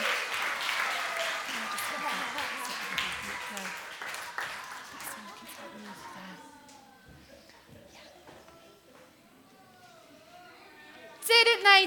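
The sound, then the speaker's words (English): A crowd applauds loudly and steadily for several seconds for children who have just told a story, the dense clapping gradually thinning and fading, with scattered voices and a sudden loud burst near the end. “Let's give our children a big round of applause.”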